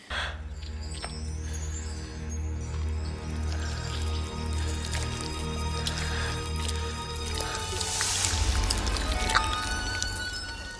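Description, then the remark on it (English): Wet, squelching gore sound effect from a film, with dripping and slick liquid textures like squishing grapes, mixed very high in volume, layered over a steady low droning hum; the squishing stays continuous and grows denser and louder toward the end. “There's like a part where there's guts, and it sounds like someone squishing grapes or oh, something.”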